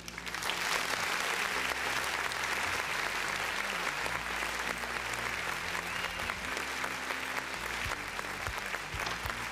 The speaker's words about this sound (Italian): E dopo questa perla io lancerei un applauso.